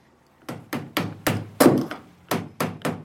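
Steady hammering on wood as a boatbuilder by the San Pietro canal in Venice caulks the planks of a traditional Venetian boat with oakum using a caulking iron: about eight sharp, resonant knocks in an even rhythm, each with a short decaying ring, with no talking.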